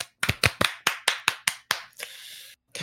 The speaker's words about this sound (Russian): Так что тут можно только аплодисменты, реально, реально аплодисменты.